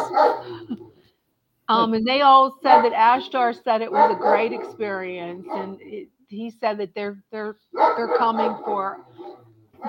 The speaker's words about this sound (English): Sorry about my dog